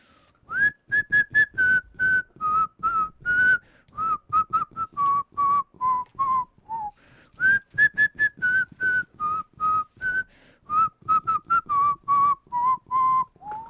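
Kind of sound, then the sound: human body sound, human whistling a tune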